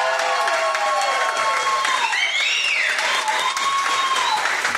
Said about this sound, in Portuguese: Agora, é para você que está ouvindo aqui do outro lado, para você não achar que eu estou mentindo, eu vou pedir que a galera bata palma para saber que tem aqui tem gente na minha frente. Bate palma aí, vai lá.